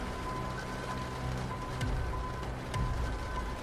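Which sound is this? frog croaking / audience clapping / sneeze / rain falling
rain falling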